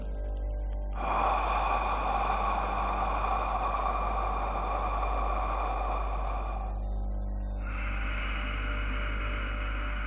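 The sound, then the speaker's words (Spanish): A long, airy inhale through the nose lasting several seconds, a brief pause, then a steady breathy exhale through the mouth, with no talking, during a pranayama breathing exercise. “una inhalación por la nariz y una exhalación por la boca generando así un ciclo en el que vamos a respirar durante tres minutos.”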